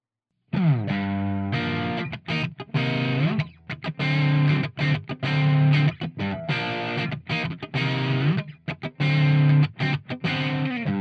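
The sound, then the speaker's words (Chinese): Music with its low frequencies boosted by EQ, giving a thick, bassy, slightly muffled tone; a steady run of loud, chopped notes plays without any talking. “那首先我们先听看看，我们强调低低频的部分。”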